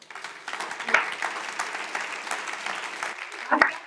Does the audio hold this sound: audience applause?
yes